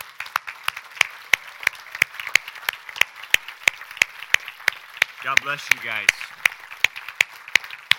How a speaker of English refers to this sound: I know it's Memorial Day, but I also would like to recognize all the veterans today. So if all the veterans would stand up today, let's give them a round of applause.